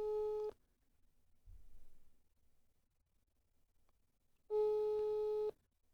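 A telephone call tone plays over a mobile phone on speakerphone as a doctor is being called in Italy: a steady, slightly tinny electronic tone sounds briefly, then after about four seconds of quiet it rings again for a second, loud.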